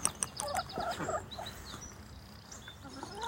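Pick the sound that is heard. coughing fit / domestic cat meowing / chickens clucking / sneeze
chickens clucking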